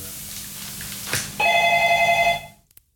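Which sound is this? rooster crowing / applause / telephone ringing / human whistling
telephone ringing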